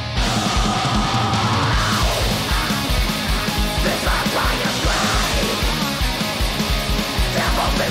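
A loud, dense rock song with a heavy, driving beat and distorted guitars, topped by a rough, shouted-sounding lead vocal that carries steadily through the whole stretch.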